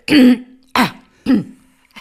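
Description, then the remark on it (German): A voice imitates a woman clearing her throat: three short, rough, voiced bursts in quick succession, fairly loud, with brief silences between them. “räusperte sich immer so.”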